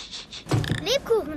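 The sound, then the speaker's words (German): One sharp sneeze bursts out after a short breathy intake, followed by a couple of brief sliding vocal sounds. “Gesundheit.”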